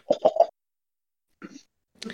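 cough

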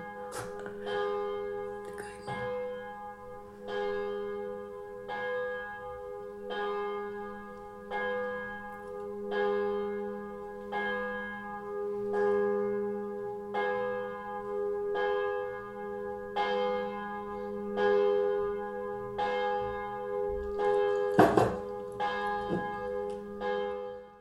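bells ringing loudly

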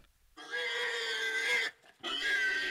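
pig grunting

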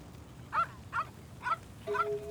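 dog barking

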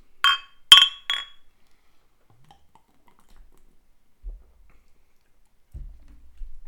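glasses clinking

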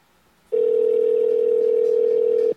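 incoming telephone call tone

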